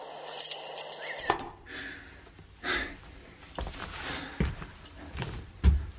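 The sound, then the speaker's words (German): A bunch of keys jangles at the start with bright metallic clinks, then quieter rustling, soft thumps and breathy sounds follow without any talking. “mein Oma Ingrid hat uns gesagt, dass Sie den Schlüssel haben. Ja, den habe ich.”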